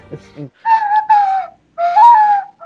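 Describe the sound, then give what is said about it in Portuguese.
A brief vocal sound, then someone whistles a video game theme tune in three sustained, wavering phrases separated by brief pauses, clear and fairly loud with no talking over it. “Quem foi editar vai pegar essa parte e vai deixar o podcast inteiro tocando a flauta do gordo.”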